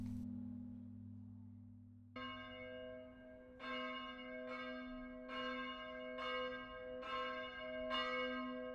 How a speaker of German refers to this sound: Heute noch haben die Glocken in auch ganz bestimmte Funktionen. Für jeden Anlass läutet eine andere Kombination von diesen sechs Glocken. Die tiefste, grösste Glocke, die läutet zum Beispiel einmal vor einer Beerdigung.